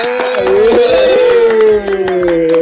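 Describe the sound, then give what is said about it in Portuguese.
Audience applause for a guest comedian from Piauí: scattered sharp claps ring out over a loud, sustained wavering tone that holds steady for a few seconds. “Queria que vocês, por favor, uma salva de palmas para esse cara.”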